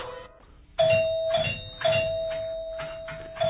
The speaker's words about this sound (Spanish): Subí las escaleras. Toqué el timbre del departamento 4.